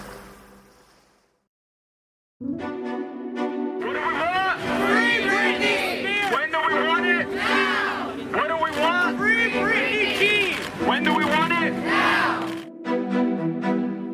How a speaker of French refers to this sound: Ces cris, ce sont ceux de manifestants dans les rues de Los Angeles.